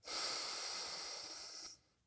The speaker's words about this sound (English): Third deep breath, breathing in